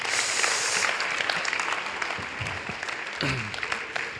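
Steady audience applause, a dense crackle of many hands clapping that stays fairly loud throughout, with a brief voice and a few cheers rising under it toward the end.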